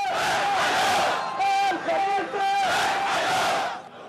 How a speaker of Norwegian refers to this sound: Khalifa-familien, trekk dere, roper sinte demonstranter. De retter sin vrede mot kongefamilien. Gravferden i den sjiadominerte landsbyen Sharakhan på tirsdag utviklet seg til kraftige demonstrasjoner mot regimet.